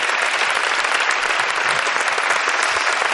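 A studio audience applauds steadily, a dense wash of many hands clapping at once, loud and close, sustained without a break for about three seconds with no voices over it.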